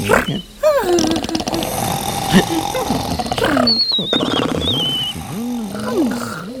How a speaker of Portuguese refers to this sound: Agora, os seis personagens ressonavam alto.